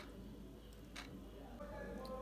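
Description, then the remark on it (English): A clock ticks softly, with a few faint clicks roughly a second apart over a low, steady background hum. “If you listen to this clock, you can see it's sounding and is as well moving.”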